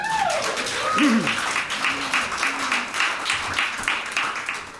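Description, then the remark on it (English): Audience applause at a live performance night as the next act is introduced: dense, steady clapping that holds for about five seconds, with a few whoops and a sliding whistle-like cheer rising over it near the start. “So put your hands together for me.”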